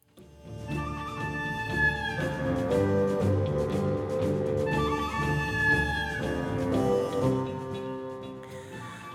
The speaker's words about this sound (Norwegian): Dette er altså musikk fra filmen 'Den gode, den onde og den grusomme' eller 'The good, the bad and the ugly' fra 1966. Spagettivestern av beste merke, må vi vel kunne si, med Clint Eastwood i en sentral eh, rolle.